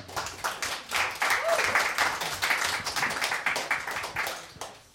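A crowd applauds steadily for several seconds, a dense patter of many hands clapping close by, with a brief voice cutting through before the clapping fades out at the end.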